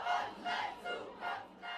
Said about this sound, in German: Die Sonne scheint, immer mehr junge Menschen strömen auf die von der Polizei gesperrte Kreuzung.